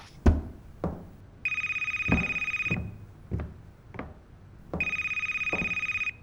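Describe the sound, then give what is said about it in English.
A work telephone at Max's laser removal rings in two long, trilling bursts with a pause between, its bright electronic tone steady and loud, while several sharp knocks or clunks punctuate the gaps. “Maybe she recognizes the caller ID and knows it's okay to be casual in answering?”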